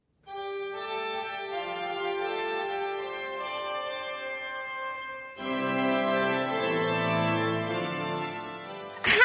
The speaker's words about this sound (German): Das ist die Orgel und wird vom Organisten gespielt. Natürlich. In vielen heiligen Messen wird die Orgel gespielt.